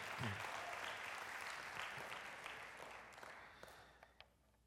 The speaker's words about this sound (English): So let's give God a hand clap of praise for that.